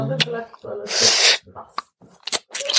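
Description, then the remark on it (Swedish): A person makes wet nibbling mouth sounds: quick lip smacks and clicks, a longer breathy crunching hiss in the middle, then a few more sharp snaps, imitating nibbling. “Ja, det är väl så man nafsar tänker jag.”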